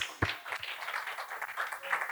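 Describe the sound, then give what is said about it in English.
An audience claps hands to Jesus during a sermon in a dense, continuous patter of many hands, steady, with one sharp louder clap near the start and faint voices mixed in underneath. “Let's clap hands to Jesus.”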